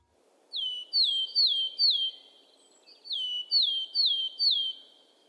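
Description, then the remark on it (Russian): A willow tit sings two phrases, each a steady run of four clear, slurred-down whistles. The bird is alone, with a soft, hissy background underneath. “А вот так поет пухляк или буроголовая гаечка.”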